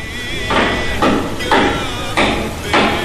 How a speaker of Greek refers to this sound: βάλε το τρυπάνι